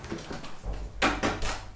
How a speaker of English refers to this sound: And can we close this door